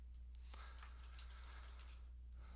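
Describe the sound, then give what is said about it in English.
Quiet, quick computer keyboard typing with scattered sharp clicks as someone clicks links during a Google search, a steady stream of soft keystrokes over a low background hum, with no voices. “I'm probably clicking all these links and infecting my computer here”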